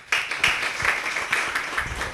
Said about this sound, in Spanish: Les pido un aplauso para Rafael, por favor.